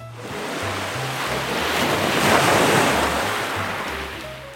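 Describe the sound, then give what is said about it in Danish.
A huge ocean wave rolls in and crashes onto the beach, drenching a father digging a channel from a sand moat to the sea, its hissing roar swelling to a loud peak midway before washing back and fading, with a low steady rumble underneath. “Faren han graver og graver, og ligesom han skal til at grave den sidste meter ud til havet, så kommer der en kæmpe stor bølge ind imod ham og overdynger ham helt med vand.”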